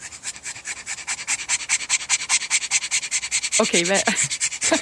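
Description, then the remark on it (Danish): A French bulldog pants hard and raspily in rapid, steady bursts, continuous, as if struggling desperately for air after a short walk; a voice briefly speaks over it near the end. “Den her franske bulldog, den øh, kæmper desperat for at få vejret efter en kort gåtur.”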